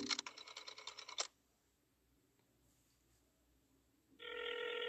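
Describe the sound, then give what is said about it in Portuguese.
An old rotary dial telephone, used to place a call, rings in a loud, rapidly pulsing burst of a little over a second, then falls silent before a steady, buzzing tone starts and holds to the end. “Será que vamos conseguir? Tá chamando.”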